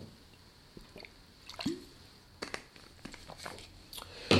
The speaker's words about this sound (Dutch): Ik neem wel even een slokje met uw welnemen. En zonder doe ik het ook.